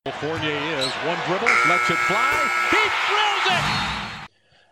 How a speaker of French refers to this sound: Le buzzer euh, retentit pour la fin de cette première mi-temps.